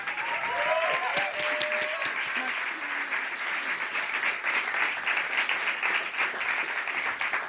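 A large concert audience applauds the four musicians accompanying the performer, steadily for several seconds, a dense, continuous wash of clapping with a few brief voices or whoops rising near the start.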